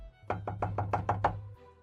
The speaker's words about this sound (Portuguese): você percebe que a porta, alguém bate na porta de novo, tipo, muito rápido, muito seguinte a isso.